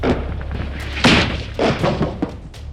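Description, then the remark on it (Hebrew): Several heavy missile explosions go off in quick succession under a red sky lit by flares, deep booms with a rumbling roar between them, loud against a constant low background rumble. “זה התחיל במכה, שמיים אדומים, נוטבים, תאורה, פיצוצים. עוד טיל.”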